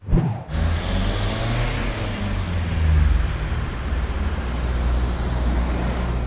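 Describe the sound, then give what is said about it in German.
Steady road traffic rumbles continuously, with cars passing by and a low engine drone swelling briefly near the middle. No voices, just a dense, moderately loud wash of vehicle noise. “Je wohlhabender ein Land ist, desto mehr Autos rollen auf den Straßen.”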